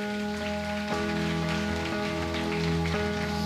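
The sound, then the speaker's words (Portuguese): An audience applauds Jesus steadily, a dense patter of many hands clapping at once, with sustained keyboard chords holding underneath. No one speaks. “Aplauda Jesus para eu tomar água aqui.”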